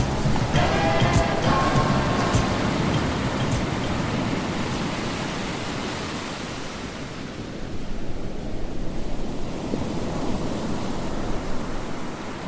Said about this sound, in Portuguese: O mar carrega, o mar é poderoso. E suas ondas que quebram